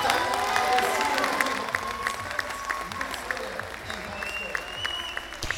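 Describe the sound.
A large crowd cheers and applauds loudly and steadily while a man's voice shouts excitedly over the noise, with other voices mixed into the roar; commentators are heard first, then the player who wins the match screams.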